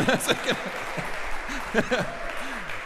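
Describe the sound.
An audience at a church service applauds steadily, a dense wash of clapping that holds for a few seconds, with cheerful voices and whoops rising over it now and then.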